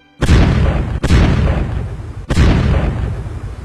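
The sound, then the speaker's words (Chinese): Three hand grenades thrown down a hillside by children explode in quick succession, killing six old soldiers, each a loud, sudden blast with a deep rumbling tail that runs into the next. No voices are heard. “在爆炸声中，六个老兵归西了。”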